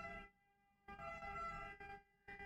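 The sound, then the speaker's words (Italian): A faint ambulance siren sounds from the street below in Turin, its steady tonal wail breaking into several bursts separated by short gaps, with no one talking. “avrei potuto registrare tutto il video con il suono dell'ambulanza sotto”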